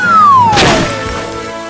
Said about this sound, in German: Das Mädchen sah erstaunt zu, wie das große Gefäß herunterfiel und mit einem gewaltigen Krachen auf dem Boden aufschlug.